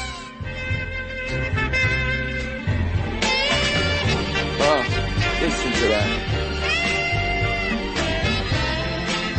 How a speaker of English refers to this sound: Let's hear that music. I want you to hear the saxophone like nobody else.